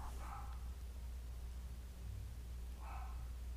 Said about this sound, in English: Oh my god, what's going on? Okay, well, my dogs are going crazy.